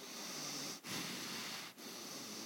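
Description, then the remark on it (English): A voice imitates heavy, angry snorting through the nose with the mouth closed, like a horse or a bull: long, harsh, breathy blasts of air broken by two brief pauses, steady, with no talking. “It's the snorting of, of a horse or of a bull.”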